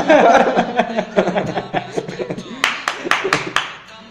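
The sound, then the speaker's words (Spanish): Laughter and chatter give way to a short burst of applause, a series of sharp, evenly spaced claps that ring out clearly over the fading voices. “Sí, aplausos”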